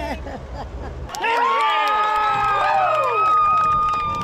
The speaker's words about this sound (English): there were cheers all around.